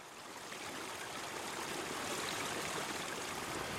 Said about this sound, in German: Wir stehen hier am rauschenden Bach am sogenannten Eckerlochstieg. Der Eckerlochstieg der steilste und dennoch beliebteste Wanderweg hinauf auf den Brocken. Ein Bach, die schwarze Schluftwasser, plätschert im Hintergrund.